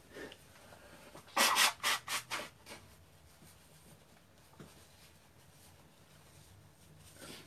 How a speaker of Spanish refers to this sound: Uy, el pastor es humano, se suena la nariz. Sí, soy humano, aunque no parezca. Igual que vos. A veces me tengo que sonar la nariz.